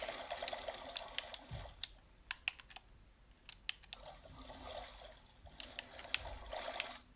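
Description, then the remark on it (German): Water sloshing and trickling in a video game where the player has turned into a giant squid, a steady wet rush punctuated by quick sharp clicks and splashes, moderately loud with no one talking. “Wie schnell ist man denn damit oh, Wasser?”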